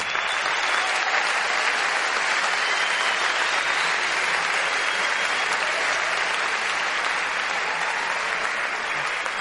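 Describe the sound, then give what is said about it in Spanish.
A large audience at a sold-out conference claps continuously, a dense, steady wash of applause that stays loud and even for the whole stretch without pausing. “Les pido un fuerte aplauso por ustedes que agotaron las entradas del salón en 10 días.”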